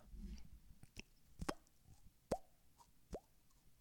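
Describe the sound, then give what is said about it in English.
A faucet drips in slow, irregular plinks, each drop a sharp tap with a short upward-gliding pitch, about four or five drops in a few seconds over a soft, hushed background. “And then a, a water faucet.”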